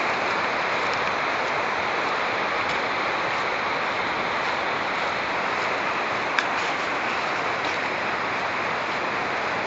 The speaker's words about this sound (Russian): Мы идем по дну ущелья вдоль заброшенной узкоколейки вдоль русла реки Корджикс. Это шумит река Корджикс.